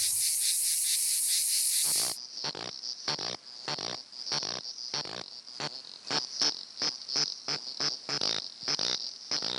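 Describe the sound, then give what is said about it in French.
A cicada calls with a loud, continuous shrill buzz for about two seconds, then breaks into rapid, regular pulsing bursts of rasping song that carry on to the end; a sound of the kind heard in the Kenyan steppe. “L'appel de la cigale”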